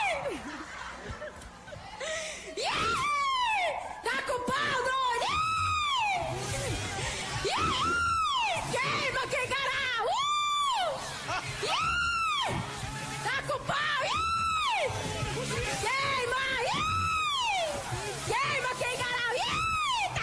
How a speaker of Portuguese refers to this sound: Então vamos, vamos virar para o nosso caderno de fofocas com aquela é vaia cearense particular de João Inácio Júnior em seu programa. O Close, o Close. Como é o seu, a sua vaia?